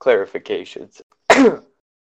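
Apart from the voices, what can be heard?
sneeze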